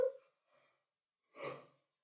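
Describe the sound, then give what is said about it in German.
A soft, breathy yawn exhales once near the end, preceded by a quick faint intake and a tiny rustle; quiet, with no talking. “Und ja, was bedeutet es denn, wenn der Körper gähnt?”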